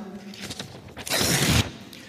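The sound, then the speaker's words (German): A single rip of a sheet of paper being torn into two pieces, one rough continuous rasp lasting about half a second, following a brief moment of someone speaking. “Ich habe hier ein Blatt Papier mitgebracht und wenn ich dieses Blatt Papier zerreiße,”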